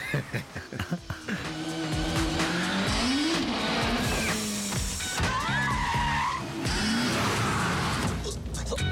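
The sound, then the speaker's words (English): Car tires skid and squeal repeatedly over a steady, loud engine roar, with sharp screeching bursts rising and falling as the car swerves through a very tight section with about two inches of room on either side. “There's a very tight piece coming up. I think you've got about two inches on either side of the car, it felt like anyway.”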